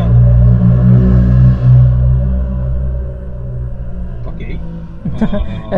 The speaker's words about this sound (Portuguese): Foi uma, moto, foi uma moto. Uma moto. A moto, a moto uh, ela passou em cima do microfone, mas enfim.